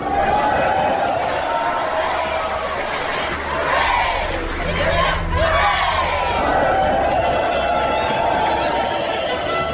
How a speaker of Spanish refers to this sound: Al escuchar esas sabias palabras, todo el pueblo aclamó a Adolfo como rey.